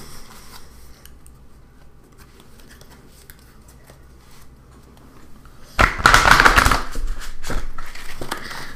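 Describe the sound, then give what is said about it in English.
After several seconds of near silence, a deck of tarot cards is shuffled during a reading, a brisk flurry of rapid papery flicks and riffles lasting about three seconds. “All right, I, I'm going to get shuffle again.”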